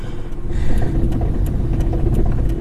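A car engine rumbles steadily from inside the vehicle while driving, a continuous low hum with faint clicks and rattles, no voices present.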